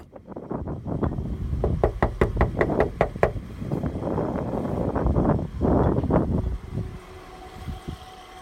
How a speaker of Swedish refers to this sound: Det här ljudet kommer från en mobilkamera. Det är filmat den 24 januari 2018. En mulen och rå förmiddag knackade på dörren till en fabrik i det lilla samhället Glumslöv i nordvästra Skåne.